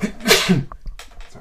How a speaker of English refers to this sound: Bless you.